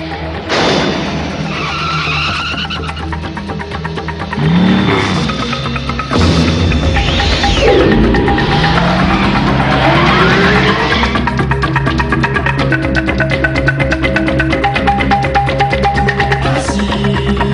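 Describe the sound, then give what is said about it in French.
A motorcycle engine revs hard with rising, whining pitch sweeps while tires skid and screech, loud throughout, a continuous burst of mechanical noise with no voices; a clip of a futuristic motorcycle from the 1980s anime Akira. “Donc cet extrait sonore pour euh, vous euh, parler du premier véhicule du futur euh, au sein d'un animé très célèbre des années 80, à savoir Akira.”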